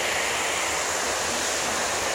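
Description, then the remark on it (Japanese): A small stream flowing through the middle of the Hirabayashi settlement in Fujikawa town, Japan, within view of Mount Fuji, is heard in the morning from a bridge over it. It rushes and gurgles steadily, a dense continuous wash of flowing water filling the whole stretch with no voices. “今富士山の見える集落藤川町平林からお届けしていますこの水の音も聞こえるでしょうか”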